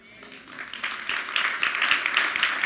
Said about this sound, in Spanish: Un aplauso al Señor.